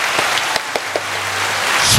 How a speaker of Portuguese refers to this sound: Então, uma salva de palmas para nossa convidada de hoje.